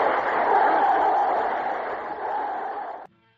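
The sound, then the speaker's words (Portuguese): A big football stadium crowd roars and cheers after a goal by Pelé, in a dense, sustained wall of noise, loud and steady for about three seconds before cutting off abruptly. “Aí está a torcida vibrando.”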